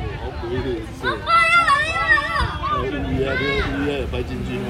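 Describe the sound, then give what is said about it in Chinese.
A steady hubbub of many overlapping voices from a crowd gathered to watch a solar eclipse, with a few clearer, louder voices rising above the crowd chatter now and then, lively and continuous throughout. “那现在这里真的很热闹，很多人。我让大家听一下，嗯、呃，现场的声音。”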